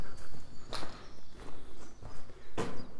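Footsteps walking beneath a huge concrete silo tower, once used for loading, with litter lying about: a handful of crisp, uneven steps landing every half second or so, with one heavier scuff near the end, and no voices.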